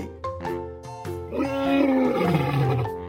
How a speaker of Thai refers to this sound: สุนัขจิ้งจอกตัวหนึ่ง เดินผ่านมาได้ยินเสียงร้องขอความช่วยเหลือ จึงเดินเข้าไปดู เห็นว่าสิงโตถูกนายพรานจับตัวได้ และถูกขังไว้ในกรง